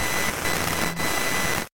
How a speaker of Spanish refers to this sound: Al igual que la luz blanca contiene todas las frecuencias del espectro visible, el ruido blanco contiene todas las frecuencias de sonido.